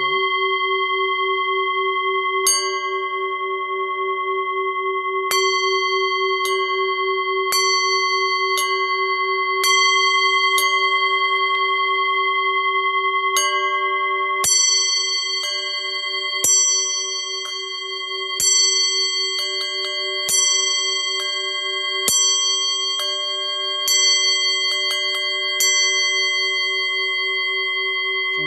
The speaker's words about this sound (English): I'm going to play now the Tibetan singing bowl. I may play both and, and, and you might hear it, hopefully. Okay, let's put this one over here. That's a third eye singing bowl. Tibetan singing